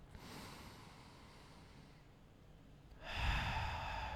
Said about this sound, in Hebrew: וככה, אתם פשוט לוקחים איזושהי נשימה עמוקה